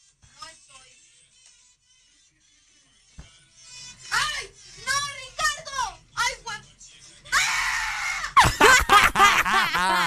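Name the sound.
scream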